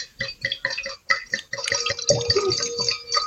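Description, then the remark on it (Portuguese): Wine is poured into a glass in a steady stream, with a gurgling, rising tone as it fills, preceded by brief clinks and handling noises. “Gente, eu vou me servir porque eu tô seca, dá licença.”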